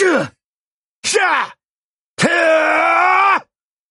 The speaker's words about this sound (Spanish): O podría hacer sonidos de esfuerzo cuando algo me está costando trabajo.